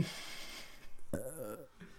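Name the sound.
burp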